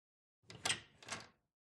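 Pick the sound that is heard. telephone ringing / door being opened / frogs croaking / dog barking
door being opened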